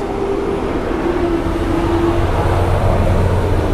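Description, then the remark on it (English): Garbage trucks rumble past outside, a heavy, steady engine drone with a low hum that stays constant throughout. No one speaks. “Sorry guys, this trash thing. Yeah, we're just waiting on all these trucks to pass.”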